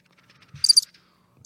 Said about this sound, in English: I just stop with the crickets, man.